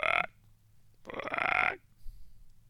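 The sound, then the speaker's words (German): A voice mimics a frog's croak: two rough, raspy bursts, a short one followed by a longer drawn-out croak, fairly loud, with a brief quieter sound after. “Ein Frosch macht doch eher so.”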